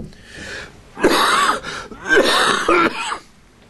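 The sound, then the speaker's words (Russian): A person coughs and clears their throat in two rough, raspy bursts, each with a harsh gravelly rasp, followed by a shorter hack and a quiet breath. “Интересно, если горло сварить, оно не будет кашлять, да?”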